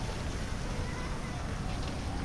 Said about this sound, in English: Water fountains are battling with noises from the street.